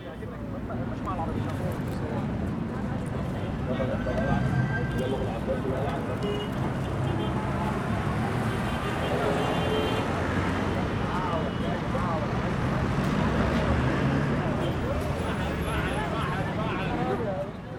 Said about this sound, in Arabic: بعد يوم طويل رجعت وسط المدينة في اسكندرية كورنيش المنطقة بين محطة الرمل والمنشية آخر النهار كان زحمة جدا ناس كتير بتحاول تتبسط على البحر الحتت القليلة اللي نجت من الإنشاءات ويقدروا يشوفوا منها البحر